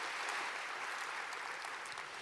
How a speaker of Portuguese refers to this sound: Quantos pode aplaudir o Senhor? Mas bem forte.